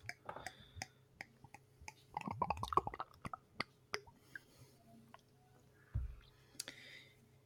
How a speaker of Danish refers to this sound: Jeg er i gang med at skrue, fordi der er en, der er en prop på den, så, så nu vil vi se.